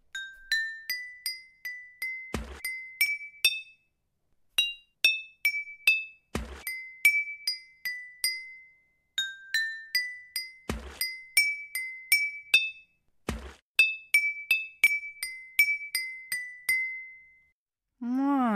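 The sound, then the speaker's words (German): A melody played on a water organ, bright ringing tones struck on water-filled glasses, notes stepping up and down in quick runs, with a few dull knocks between phrases and a short sliding sound at the end. “welches Lied jetzt in dieser Wasserorgel gespielt wird.”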